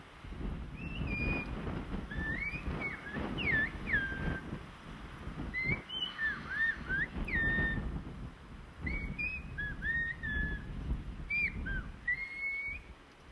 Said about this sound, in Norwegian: Det er en liten øy som heter La Gomera, hvor de snakker et språk som heter silbogomero. Hvordan høres dette språket ut? Litt spesielt, for det er et plystrespråk. Og det skal vi høre hvordan det høres ut her.